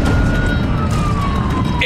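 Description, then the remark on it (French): A police car siren wails with a steady, slowly falling tone over loud, dense engine and road rumble as the police car follows behind cars in a race, with no voices. “Oh, la police, la police! La police dans le rétroviseur!”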